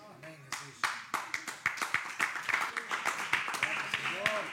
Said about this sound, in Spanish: No aplaudimos porque somos indolentes, sino que aplaudimos porque Dios nos ha sacado de la indolencia.